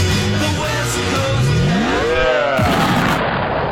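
A loud, dense burst of booming explosion-like noise with rising and falling swoops layered through it, filling the whole short stretch like a produced sound-effect sting.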